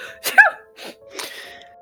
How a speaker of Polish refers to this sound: Kichnęłaś.